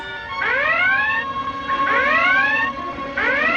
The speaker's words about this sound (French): Faites taire cette maudite sirène